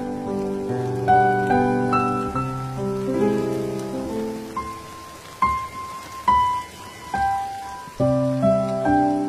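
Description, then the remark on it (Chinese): Light drizzling rain patters steadily beneath a soft, slow melody of sustained piano-like notes, with a few sharper tones standing out as the music moves along. No one speaks. “我在古都西安，每天晚上等你和我一起聆听下雨的声音。”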